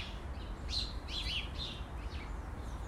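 A few short birdsong chirps and trills, fairly quiet, bunched in the first half over steady low background noise, with no one talking.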